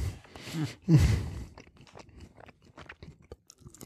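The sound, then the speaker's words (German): Crunching and chewing on a crisp Polish snack, opening with a loud burst of crackly bites, then a steady run of softer, irregular munching clicks. No one speaks. “So, jetzt werde ich mal zwischendurch hier ein bisschen was Polnisches knabbern, um ähm, zu neutralisieren.”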